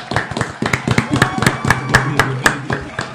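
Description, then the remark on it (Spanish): A small group applauds the guests with crisp, closely spaced claps that keep up a steady, uneven patter for a few seconds, moderately loud, with faint voices underneath. “Un aplauso para los invitados, por favor.”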